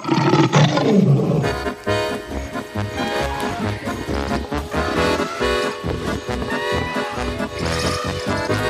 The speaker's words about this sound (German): Der Löwe konnte nicht schreiben, aber das störte den Löwen nicht, denn der Löwe konnte brüllen und Zähne zeigen, und mehr brauchte der Löwe nicht.